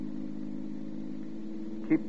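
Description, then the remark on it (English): A steady low engine hum from a car driving south just outside Laguna as the fog starts to lift fills the whole stretch, with a brief louder swell near the end, even with no one talking. “The car just behind picked me up outside Balboa.”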